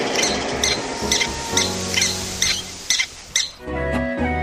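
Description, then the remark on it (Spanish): A Mexican prairie dog's alarm call, given when foxes, coyotes or hawks come too close: about eight sharp, high-pitched squeaky chirps repeated at a steady, quick rhythm over a low, sustained background tone, with no talking. “Siempre estamos vigilantes de las zorritas, coyotes y halcones y cuando se acerca demasiado, damos un grito de alarma.”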